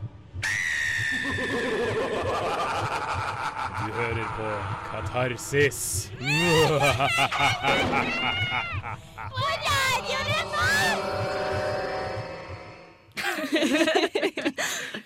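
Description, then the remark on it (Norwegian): A spooky, densely layered Halloween radio opening jingle, made for Halloween day, with whinnying horse sounds, screams and eerie swooping effects, a voice announcing over it, ending in a short loud burst after a brief pause. “Det er jo halloween i dag, så vi måtte spice opp eh, åpningsjingeren litt.”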